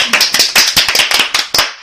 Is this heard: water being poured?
no